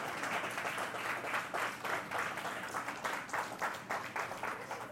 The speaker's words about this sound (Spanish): Vamos a darle un fuerte aplauso a nuestro Dios en esta mañana.